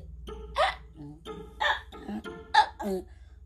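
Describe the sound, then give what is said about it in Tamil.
A voice imitates a donkey choking on a stick stuck in its throat while grazing, making four or five strained, hiccuping bray-like bursts in an uneven rhythm, fairly loud, with no other talk. “இந்த சத்தம் சிங்கத்தோட காதில் கேட்ட உடனே என்னடா இன்னைக்கு இந்த கழுதை ரொம்ப வித்தியாசமாக கத்துது”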